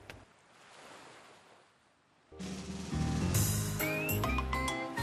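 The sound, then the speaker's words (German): Ocean waves wash onto the shore of an island in a soft, rising and falling hiss for a couple of seconds, then bright music comes in and plays loudly over the surf. “Wir sind gelandet, das habe ich gar nicht gemerkt. Auf einer Insel”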